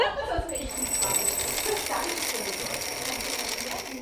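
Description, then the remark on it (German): Popcorn maize kernels pour steadily from a bulk dispenser in a package-free shop into a glass jar held under the opening as a lever is pulled, a dense, bright rattling patter of hard grains that keeps up evenly for about four seconds. “Jetzt hält man das Glas unter die Öffnung, zieht an dem Hebel.”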